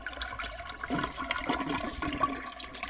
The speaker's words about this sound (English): That is a long flush.